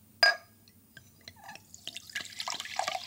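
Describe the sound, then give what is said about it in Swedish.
A sharp clink opens, then liquid from a bottle trickles and splashes into a glass, poured in the dark at Svartklubben, the pouring growing steadier and brighter toward the end, fairly quiet. “Hur häller du upp där nu då”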